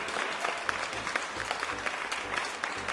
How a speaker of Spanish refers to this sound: un aplauso para ustedes, ¿verdad? aplausos para eh